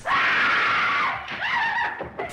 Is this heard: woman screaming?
yes